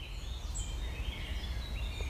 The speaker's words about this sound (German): Die Vögel zwitschern aber immer noch.